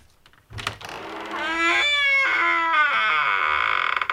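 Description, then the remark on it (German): A long, drawn-out creak of a door, a loud whining groan with a wavering pitch that rises and shifts over several seconds, with no voices. “Eine Tür, die knarrt.”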